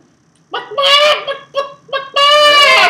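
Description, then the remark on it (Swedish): A chicken clucks loudly, a handful of short, bright clucks in uneven rhythm, then a longer drawn-out squawk at the end. “Nej, vi ska ha en kyckling som möter när vi kommer ihåg mina poddar hit.”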